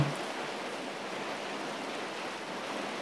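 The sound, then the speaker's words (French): Steady, even hiss of rain falling outside on a rainy evening during a heatwave, a dense wash of droplets with no clear individual hits, moderately quiet and unchanging throughout, with no voices. “Et vous entendez peut-être déjà la pluie derrière moi.”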